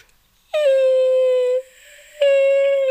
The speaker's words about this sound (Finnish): No niin, nyt sä sait kunnon haukotuksen videolle.